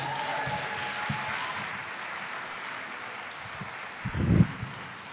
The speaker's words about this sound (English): Morning, church. First off, can we give the choir a round of applause?